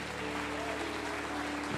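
A church audience claps for God in a dense, steady wash of applause that holds at an even level for about two seconds, with a faint low sustained tone underneath.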